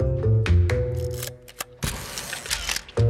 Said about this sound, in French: Et vous l'avez compris, après ces applaudissements fournis, c'est l'heure d'accueillir